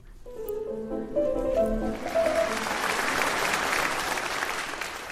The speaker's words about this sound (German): Tja, tosender Applaus bei Wolfgang Amadeus Mozart und ….